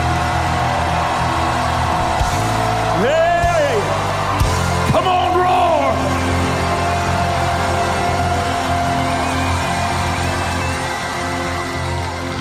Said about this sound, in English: Let me hear you roar, Zion.